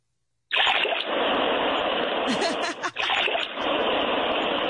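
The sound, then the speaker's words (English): A sound effect of gushing water: a loud, continuous rush of splashing water starts abruptly after a brief silence and pours steadily for several seconds, with a momentary dip near the end before surging again. “Sounds like Hurricane Ida.”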